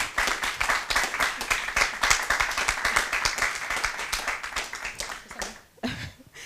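Steady applause from an audience, many hands clapping densely and continuously for several seconds before fading, with a brief voice near the end.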